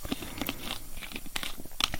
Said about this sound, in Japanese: 炭酸の音がたまんないですね。